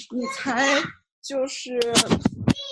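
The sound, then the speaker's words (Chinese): Two children's high-pitched voices chatter and squeal in two lively bursts separated by a brief pause, fairly loud and mixed with bits of speech. “不好意思啊，他们俩有点吵，我换个地。”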